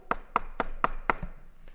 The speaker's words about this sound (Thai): และวันหนึ่งท่านกำลังนั่งอยู่ในสถานที่นั้นในคุก และท่านเห็นทหารเดินมาที่หน้าคุก และเคาะประตูคุก